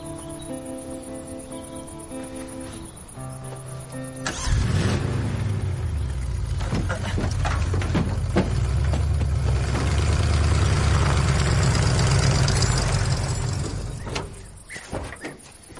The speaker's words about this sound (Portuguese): Vocês consertaram? É, tivemos uma certa dificuldade, mas o motor parece estar tinindo.